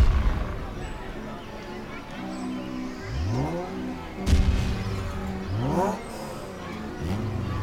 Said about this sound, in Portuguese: Os três caminharam por entre as sombras por alguns minutos. Quando começaram a ouvir barulho de pessoas conversando e algumas explosões.